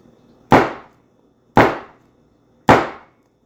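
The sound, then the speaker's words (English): Three loud, sharp hammer blows striking nails, evenly spaced about a second apart, each a bright metallic impact with a short ringing decay, isolated against near silence. “We get to be reminded that through the sounds of a hammer hitting some nails,”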